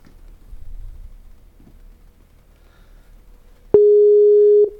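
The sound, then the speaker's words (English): An outgoing Skype call's ringing tone for a KJ Radio interview: a single loud, steady electronic tone lasting about a second near the end, after several seconds of faint low background rumble. “and see if she'll pick up the phone.”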